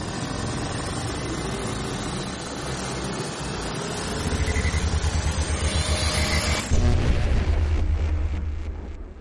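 Time machine engines start up for a trip 20 years into the past: a dense, roaring rumble with a low, throbbing pulse that builds steadily, then surges louder and harsher partway through. No voices.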